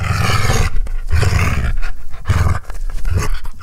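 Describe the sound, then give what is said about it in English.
Dogs growl and roar in loud, repeated bursts, about four rough, excited outbursts with brief gaps between them and no talking. “It sounds like the dogs are getting really fucking pumped about this.”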